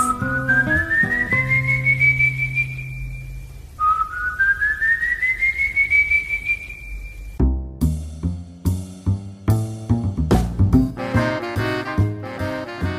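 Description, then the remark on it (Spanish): Two long, loud whistles, each sliding steadily upward in pitch and then holding, give way to lively music with rhythmic strummed and plucked instruments; no one speaks. The piece is a Venezuelan musician's version of the legend of the Silbón. “Estamos escuchando en este momento la versión compuesta por el músico venezolano”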